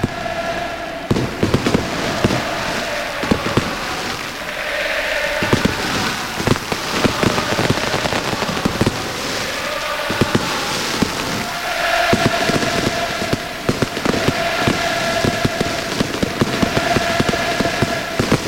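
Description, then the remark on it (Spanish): Dense, rapid bursts of fireworks crackle and pop continuously at the Benito Villavarín stadium on a rainy night during Joaquín Sánchez's farewell and guard of honour, with sharp bangs scattered throughout and a steady tonal hum underneath, echoing across the stadium. “Hay pasillo de honor y fuegos artificiales, así está sonando.”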